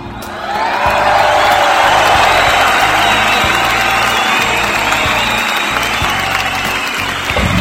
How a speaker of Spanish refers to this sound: y para él, señor, un fuerte aplauso hasta la eternidad.